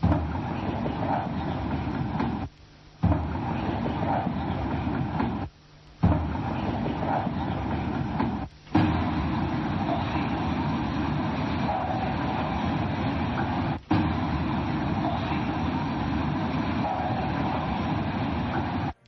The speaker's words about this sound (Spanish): Les vamos a poner otra psicofonía. Quédense, compartan. no se vayan, no sean miedosos. Ahí les va otra psicofonía.